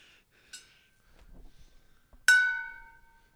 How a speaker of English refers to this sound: hit the gong. Here we go.